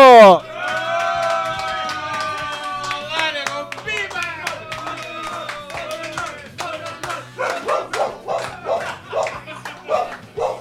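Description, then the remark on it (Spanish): A dog named Lunita barks in a string of short, sharp yaps, growing quicker and more insistent toward the end, with people talking over it. “Hasta Lunita estuvo aportando aquí en, esta, en este primer capítulo de Moto and Roll.”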